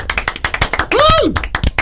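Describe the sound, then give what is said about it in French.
Several people clap quickly and unevenly during a quiz game after everyone scores a point, a steady patter of sharp claps throughout, with a short rising-and-falling vocal whoop breaking through midway. “Bravo, bravo, on peut applaudir.”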